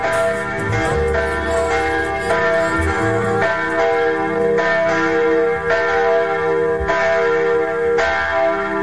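Church bells peal loudly and continuously, overlapping strikes arriving in a steady rhythm about once a second, with rich ringing overtones and no voices.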